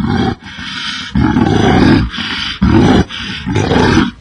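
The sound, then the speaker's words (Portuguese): A bear roars loudly in a series of deep, rough bursts, about five in a row with short breaks between them. No one speaks. “Ah, bem, como não pude me lembrar disso, muito obrigado, seu urso cretino.”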